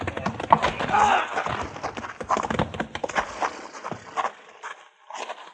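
horse hooves galloping

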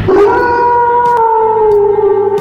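wolf howl

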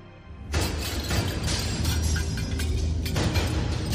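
glass shattering

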